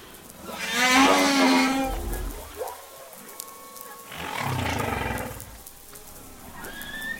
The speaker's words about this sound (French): Et la baleine va répéter ça en boucle pendant une heure, deux heures, une journée, comme elle le sent quoi.